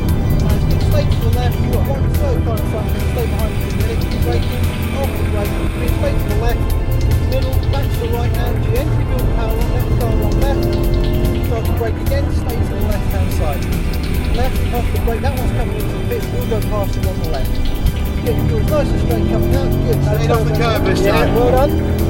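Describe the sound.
The powerful engine of a Mercedes-Benz C63 AMG Coupé Black Series roars steadily as it drives on a track, its pitch rising and falling as the car accelerates and slows, with a voice talking over the constant engine noise.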